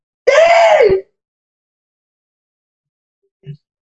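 A loud, drawn-out shout from an audience raising hands after being asked who has accepted Jesus rings out for under a second, its pitch sliding downward, then gives way to near silence broken only by a faint, brief knock.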